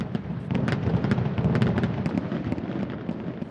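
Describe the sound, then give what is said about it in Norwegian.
Fireworks exploding in a dense, continuous barrage, with rapid sharp cracks and pops layered over a loud, rumbling low roar, no voices present. “Hundeeier Stepanka Horakova forteller hvordan fem år gamle Ludvig har det når det bokstavelig talt braker løs.”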